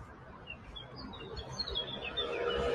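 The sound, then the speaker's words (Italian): A small bird sings in a series of short, high chirps and whistles over a low background rumble that grows slightly louder toward the end. “vi lascio nel silenzio che poi non è un silenzio, è un, è un positivo silenzio fatto di quest'ora di canto di uccellino, ad esempio sentiamo questo qua.”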